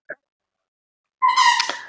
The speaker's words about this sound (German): es gibt einen kleinen äh, Schäferhund-Welpen